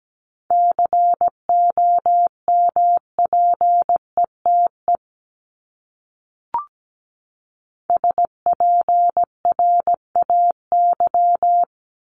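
Morse code practice of common English words (the top 1751–2000 words), sent at about 17 words per minute: a single steady mid-pitched tone keyed into quick short and long beeps, in two runs split by a silent pause and one brief click.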